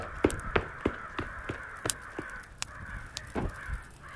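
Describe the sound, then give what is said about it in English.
A flock of attacking crows, squeezing through a house chimney, cawing harshly over and over, overlapping calls coming in an irregular rapid burst with a steady noisy wash beneath, moderately loud with no voices. “THE BIRDS”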